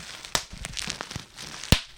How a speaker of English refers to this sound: Some packing material.